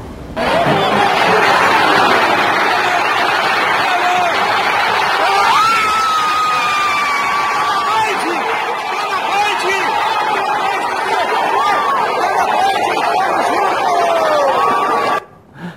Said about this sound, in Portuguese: É um monte de gente gritando junto ali, né? Que legal.